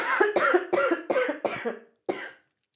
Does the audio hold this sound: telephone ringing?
no